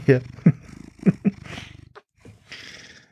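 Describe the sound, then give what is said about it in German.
A male domestic cat purring while being cuddled, a steady low rumbling rhythm broken by a few short chirpy vocal bursts, fading into softer breathy noise toward the end. “Da katzt eine Katze.”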